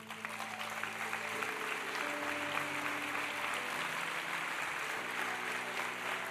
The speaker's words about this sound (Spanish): Pónganse de pie. Vamos a aplaudirlos a estos líderes.